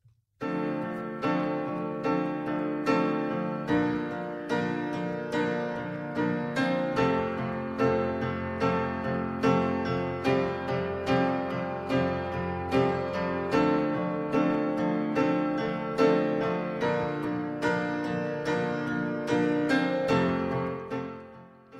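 A mellow pop song plays on its own, driven by steady, evenly repeated chords at a moderate, constant level, with no talking over it.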